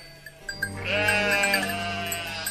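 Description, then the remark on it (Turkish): A sheep being herded toward a well lets out a loud, wavering bleat that swells and holds for over a second, preceded by a few short clicks and shuffling noises. “Koyunlara hakim olmak da o kadar kolay değilmiş.”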